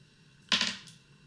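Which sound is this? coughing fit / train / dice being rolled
dice being rolled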